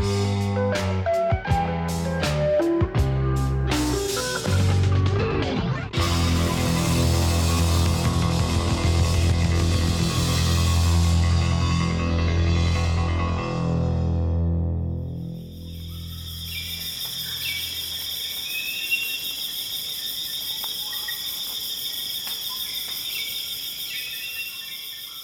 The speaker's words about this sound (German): So klingt der Regenwald in Gabun im Kongobecken. Das Kongobecken ist nach dem Amazonas das größte tropische Waldgebiet der Welt.